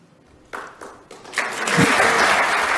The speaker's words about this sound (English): oh, the, the first hand claps are beautiful.